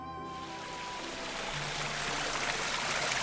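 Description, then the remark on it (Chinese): A mountain stream crossing a valley surrounded by mountains, at the Daxiyuan butterfly valley in Taishun, Wenzhou, China, rushes steadily, a dense, continuous wash of flowing water that swells slightly louder over a few seconds, with a faint tonal hum fading out at the very start. “在群山环绕间，溪流横过山谷。”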